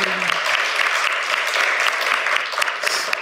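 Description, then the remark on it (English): Sustained audience applause for Torbjørn Røe Isaksen, Minister of Industry and Trade, introduced on a panel: a dense steady patter of many hands clapping at a fairly loud, even level throughout, with no voices standing out. “A big applause for him.”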